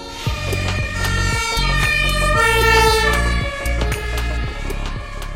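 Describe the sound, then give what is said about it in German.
A fire engine's two-tone siren (Martinshorn) wails loudly, alternating between high and low pitches in a steady repeating rhythm over a deep engine rumble, with no voices. “Und wenn es ganz schnell gehen muss, machen sie vor keiner Ampel halt und schalten ihre besondere Sirene, das Martinshorn, an.”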